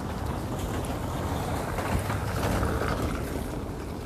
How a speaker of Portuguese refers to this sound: Ai, gente, meu Deus, como barulho de carro. tiver barulho de vento, de carro, foi mal.